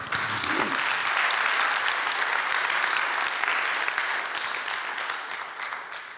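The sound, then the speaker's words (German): An audience applauds a woman after her testimony, a dense wash of many hands clapping at an even, fairly loud level for several seconds, tapering slightly toward the end. “Geben wir ihr einen Applaus.”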